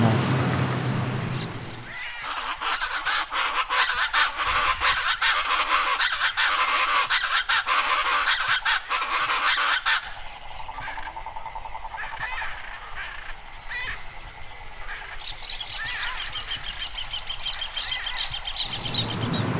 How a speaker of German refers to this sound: Und gestern zur selben Zeit bin ich noch zum See vor unserem Haus gegangen und habe noch aufgenommen, wie es da klang. Bisschen anders.